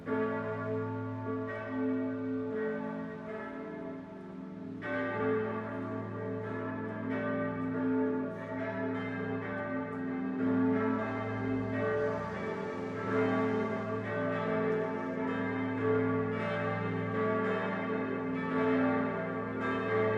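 Seven church bells ring in Christmas 2021 from the north and south towers of the Basilica of Gößweinstein in Upper Franconia, Germany. Five come from Heilbronn and two from Bamberg. They peal together in a full, continuous ringing, their overlapping tones swelling and layering steadily for the whole stretch, with no voices present.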